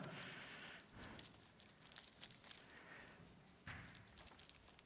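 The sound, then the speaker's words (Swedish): Continuous crinkling and rustling as tape is handled, with two louder ripping bursts where a strip is pulled and torn away. No one speaks. “Och det var här tejperna skulle funka, men vi sätter så här.”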